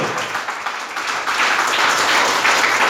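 Applause for Christ at a preacher's call during a sermon: dense, steady clapping from many hands that swells louder after the first second and holds as a continuous crackling wash with no talking.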